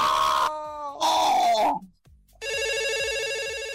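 A telephone rings in loud electronic bursts, signaling an incoming call: two trilling tones with harmonic stacks, a short gap, then a sustained buzzing ring with a steady pulsing rhythm.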